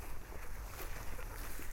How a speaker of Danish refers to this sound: Ja, det er vores eneste motordrevne maskine. Det er sådan en, en tohjulet traktor, kalder man det, fra Ferrari. Så det, øh, det er noget, man, man ser mere nede i de små sydeuropæiske landbrug